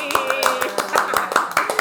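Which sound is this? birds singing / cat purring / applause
applause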